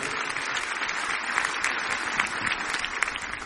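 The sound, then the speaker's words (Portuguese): An audience applauds the name of Jesus steadily, a dense wash of many hands clapping at an even, sustained loudness with scattered sharper claps standing out, and no voices rising above it. “Você pode aplaudir o nome de Jesus?”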